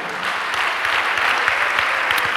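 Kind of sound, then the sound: crowd, audience applauding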